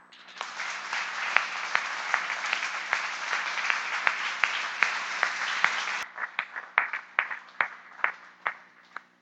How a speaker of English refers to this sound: there's been a whole load of pain and diligence and hard work and just good eldering that I just would love us to honor and just give them a round of applause to say well done.